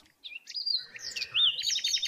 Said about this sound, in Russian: как громко в Израиле поют птицы и как их много. По утрам. Вот это такое щебетание.